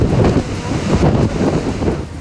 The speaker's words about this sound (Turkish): Fırtınanın etkili olduğu Zonguldak'ta dalgaların boyu 5 metreyi aştı.